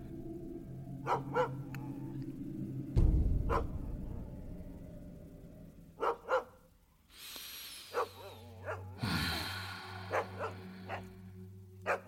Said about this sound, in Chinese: 这个时候，一楼的狗又叫起来了。